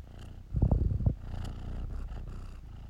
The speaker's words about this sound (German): Ähm, ja, jetzt schnurrt er wieder. Könnt ihr ihn ja hören.